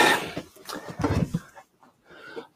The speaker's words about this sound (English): But those listening at home, is a cat.